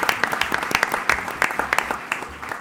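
Steady applause from a small group, a continuous patter of many hands clapping at close to moderate distance, fairly loud and sustained, with a faint murmur of voices beneath.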